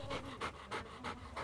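A 2-3-year-old female tricolour (black, white and tan) Bernese mountain dog of about 33 kg pants steadily, about five quick breathy huffs in a regular rhythm, soft, with no other sounds or voices.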